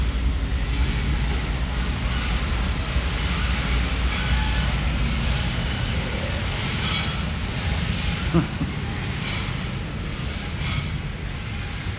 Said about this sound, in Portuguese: Olha só. É, é o trem do sininho, é, é bem Brasil. Não tá um fom, uma buzina na bosta do trem.